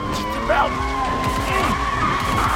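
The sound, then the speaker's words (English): Car tires skid loudly across a road surface, a continuous squealing screech with wavering pitch that holds steady for the full few seconds, prominent over a low rumbling engine. “The road glows beneath the tires, and the car inches forward, pulling Tuoro along with it.”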